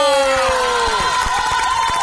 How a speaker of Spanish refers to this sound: Así que, como mejor cómic indie, está de nuestra querida. Eh, de nuestra tan amada Kabi Nagata, que es española, aunque el título es japonés la guerrera errante. ¡Un fuerte aplauso!